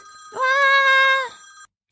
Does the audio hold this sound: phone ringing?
yes